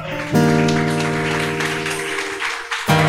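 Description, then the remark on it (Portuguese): A crowd claps steadily in a dense, continuous round of applause, mixed with sustained keyboard chords that hold throughout and briefly drop out near the end. “Uma salva de palmas, por”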